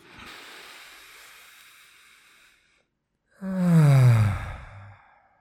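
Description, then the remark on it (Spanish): A long, airy inhale lasting a couple of seconds, a brief pause, then a louder, voiced exhale that falls in pitch like a deep sigh, with no talking. “Te invito a que tomemos una respiración profunda juntos”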